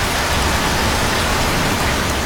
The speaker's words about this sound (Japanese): 晴れのち雨雨のち大雨大雨のちもっと大雨もっと大雨のちもっともっともっと大雨